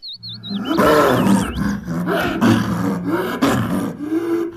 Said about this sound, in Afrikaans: Luiperd grom hard. Maar daar is geen reaksie van Leo se kant af nie.